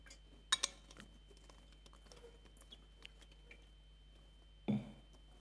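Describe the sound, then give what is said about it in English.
A person giving a sermon pauses to quietly take a sip of water amid a hush: a couple of sharp little clicks from a glass early on, faint handling noises, then a soft knock as it is set down. “And I'm going to have a drink of water quickly.”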